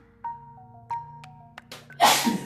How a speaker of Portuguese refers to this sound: espirrei, né? Coronavírus não.